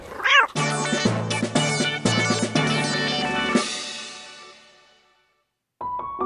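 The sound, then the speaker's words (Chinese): A single short, high-pitched cat meow rises and falls, then gives way to loud, bright sustained musical chords that ring and slowly fade to silence before a brief tone returns. “不，不对呀，你这画面上是狗啊，我这是猫啊。”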